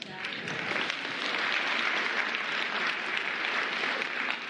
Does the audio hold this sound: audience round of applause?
yes